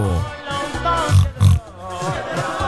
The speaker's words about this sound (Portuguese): Até então já arranjei aqui um porco aqui, é?